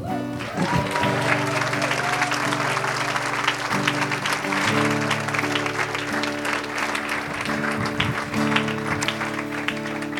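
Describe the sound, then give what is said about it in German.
Sustained, loud applause for Jesus from a church audience fills the whole stretch, a dense steady clatter of many hands clapping, with a low held tone humming underneath throughout. “Können wir Jesus einen Applaus geben?”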